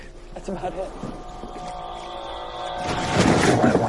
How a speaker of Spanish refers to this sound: Tal vez deberíamos apagar el motor.